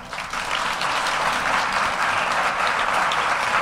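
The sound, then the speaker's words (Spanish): Audience applause at a Spanish-language presentation about Mars, for a performer playing an android, fills the whole stretch, a dense, steady wash of many hands clapping at a constant loud level without any voices over it. “Un aplauso para ella.”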